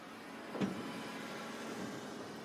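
A grape harvesting machine passes slowly over the vines, its arms shaking them gently and the grapes stored directly in the machine; it runs with a steady mechanical drone and low rumble, broken once early on by a brief, sharper clunk; no one speaks.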